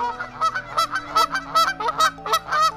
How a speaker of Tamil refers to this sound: பறவை ஒரு விதமாக கத்துதா நல்லா கத்துத பறவை கேட்டுதா அதுவும் ஒரு விதமான பறவை அது வந்து ஆஸ்திரேலியாவிலேருந்து வந்த பறவை